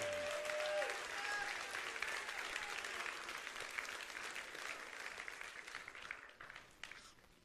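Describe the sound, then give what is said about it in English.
A church crowd breaks into sustained applause for God at a morning service, a dense wash of many hands clapping that stays loud throughout and thins slightly toward the end, with a few faint voices and whistle-like tones mixed in. “Give Him a round of applause in His house this morning.”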